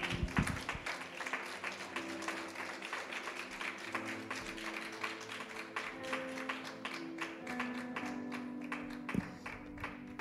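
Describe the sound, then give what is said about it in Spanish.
A church audience applauds God during a sermon, steadily for about ten seconds, a dense, even wash of many hands clapping at once, with faint sustained musical tones underneath and no talking. “Den un aplauso a Dios que voy a tomar agua.”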